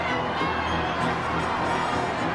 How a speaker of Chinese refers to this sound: 巨大的声响让整个剧院都颤抖起来了。哦，不要误会啊，这可不是来自观众的共鸣，他们是在抗议。观众高声的叫嚣、咆哮，嘘声淹没了音乐，甚至反对者还搬出了凳子大打出手呢。